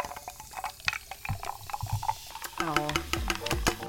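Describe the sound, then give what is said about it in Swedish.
Crackling fizz of a freshly opened can of candy-flavoured carbonated soft drink, a steady hiss of tiny popping bubbles that carries on throughout, with a voice briefly murmuring over the last second or so. “Det lät lite som en öl, men det gör väl alla såna här burkar som man öppnar?”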